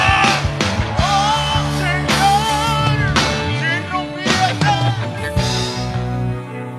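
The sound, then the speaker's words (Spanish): A church audience lets out loud, sustained shouts and cheers as a war cry in several surging bursts, voices rising and falling together over a dense, reverberant background for about seven seconds. “Alguien puede dar grito de guerra.”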